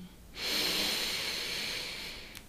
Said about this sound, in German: Lass uns nochmal ganz kurz gemeinsam einatmen.